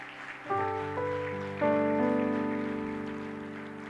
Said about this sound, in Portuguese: Amém. Amém. Aplauda o Senhor.